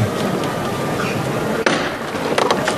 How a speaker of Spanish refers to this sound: que se ponen de nuevo, primero de los golpes de martillo